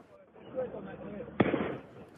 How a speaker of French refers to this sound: Sur cette vidéo, on entend les tirs de mortier d'artifice et les cocktails Molotov tirés par des jeunes cagoulés.